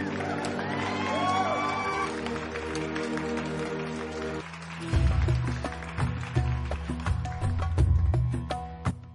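Sustained audience applause for Sigmund Freud, the week's third award winner, with dense, steady clapping, joined by a swelling musical jingle with a thumping beat partway through; no one speaks.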